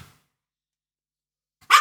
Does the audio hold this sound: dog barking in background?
yes